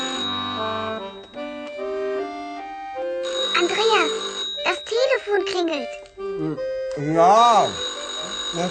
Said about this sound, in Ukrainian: включив музику і почав їсти, як задзвонив телефон.